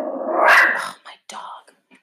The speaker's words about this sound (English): I have a Pomeranian and he, any time a car goes by, he barks. It's so annoying. Shh. His name is Butters.